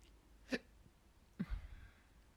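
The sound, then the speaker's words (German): Two short, abrupt hiccup bursts about a second apart, moderately loud against a quiet background, with no talking. “War es ein ich, Schluck auf?”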